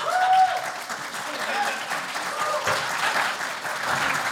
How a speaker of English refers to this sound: Someone in the audience clap for me. That. That, that'll work. Yeah.